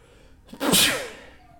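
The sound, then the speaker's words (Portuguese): A single loud human sneeze bursts out after a brief sharp inhale, its hissy spray tailing off quickly into quiet. “Espirrei”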